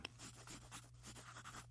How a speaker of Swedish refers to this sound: I hopp om att den världsberömda författaren ska kunna hjälpa henne att uppfylla drömmen om att bli skådespelare fattar tolvåringen pennan och skriver till henne.